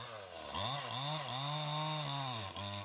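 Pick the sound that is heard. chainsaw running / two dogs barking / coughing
chainsaw running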